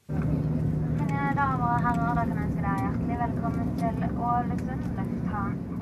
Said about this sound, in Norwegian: Vi går inn for landing på Ålesund lufthavn.